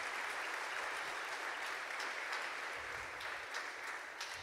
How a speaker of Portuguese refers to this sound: Vamos aplaudir esses amados que estão nos visitando hoje.